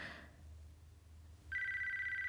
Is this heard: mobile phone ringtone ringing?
yes